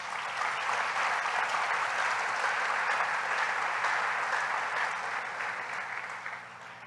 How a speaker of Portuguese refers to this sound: Aplauda mais uma vez.